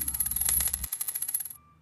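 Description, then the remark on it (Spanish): A quick flurry of bright metallic clinks and jingles, like a handful of coins spilling and rattling on a hard floor, fairly loud, ending with a faint lingering ring. “¿Qué hacen esas monedas en el suelo?”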